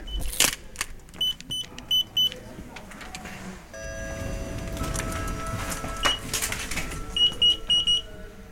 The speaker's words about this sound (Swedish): Här och nu ska vi åka upp en våning och där har vi tredjelandsflighter som kommer där. Och det är då innanför gränskontrollen. Här på terminal 5, F-pilen. Då tar vi hissen upp.